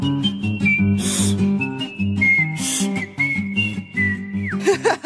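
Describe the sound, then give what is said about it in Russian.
A woman whistles a tune, a clear sustained melody gliding between notes over a steady musical backing, ending with a quick falling slide. “Ты насвистывала?”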